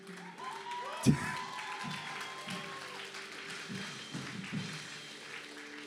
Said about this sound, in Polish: Ja niektórych to zapiszę na kurs klaskania. Będziemy robić kurs klaskania w kościele. Dobra? Mamy dla Boga klaskać tak, jak dla swoich dzieci, kiedy zdają matury, czy egzaminy na prawo jazdy, czy cokolwiek.